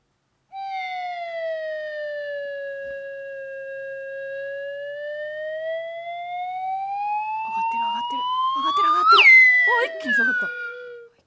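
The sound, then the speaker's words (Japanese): A wave whistle (slide whistle) acts out a line graph running from age 5 to the twenties. It holds one long continuous tone that dips slowly, climbs gradually, then jumps sharply up and down near the end, with laughter and voices breaking in over the final seconds. “じゃあ5歳から20代までね、はいそのあたりまでは、じゃあ私、ちょっとね、えーウェーブホイッスルで表現します。”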